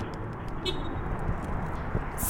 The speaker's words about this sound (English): So I'm standing right now outside the Deer Valley Community Center, and as you probably are hearing in the background, there's just this gentle rushing sound, and that is the interstate, the 101 headed west going towards the junction with I 17.